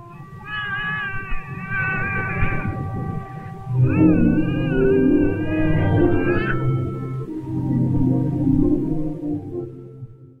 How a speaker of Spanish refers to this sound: Escuchen con atención cómo la música va a obedecer a los llantos del niño. Es más, el llanto realiza notas casi idénticas a lo que estamos escuchando en la música de Conde.